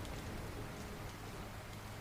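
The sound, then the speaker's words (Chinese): Steady rain falls without pause, a dense, even hiss of countless drops spread across the whole range, holding the same moderate level throughout with no voices. “在沉沉的睡眠中，继续听着这滋养的雨声。”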